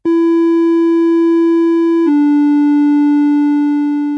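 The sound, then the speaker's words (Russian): A loud, steady electronic test tone with a rich, slightly buzzy timbre holds for about two seconds, then shifts to a slightly lower pitch and sustains. No one speaks. “В середине улитки — растут волосковые клетки, воспринимающие звуки средней частоты — от 600 до 1500 Гц.”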